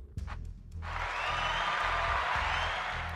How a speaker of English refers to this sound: So I gave you guys applause there. I give everybody applause. All of you out there.